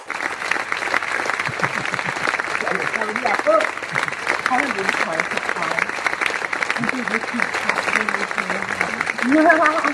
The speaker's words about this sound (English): But uh, let's let's of course uh, give our sponsors an applause, the well deserved applause. Here we have the applause.